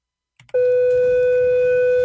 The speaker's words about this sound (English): There's the bell class is over